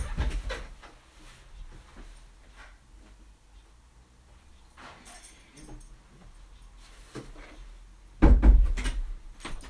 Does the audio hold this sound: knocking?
yes